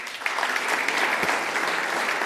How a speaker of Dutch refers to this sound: Dames en heren, groot applaus, Jacqueline Kramer.